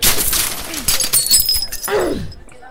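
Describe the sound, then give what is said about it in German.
A crate full of glass bottles is thrown, bursting into shattering, crashing glass, with bright clinking shards scattering over a couple of seconds, followed by a low sliding thud as the debris settles. “schmeiß mal nochmal ein Packung Gla äh, so, äh, einen Kisten voller Glasflaschen rüber.”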